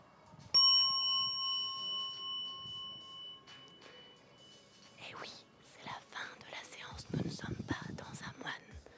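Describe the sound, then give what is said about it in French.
A single bell is struck once at the end of a beer yoga session, its bright, clear tone ringing out and slowly fading over several seconds before soft whispering voices take over. “Écoutez, le son de la cloche.”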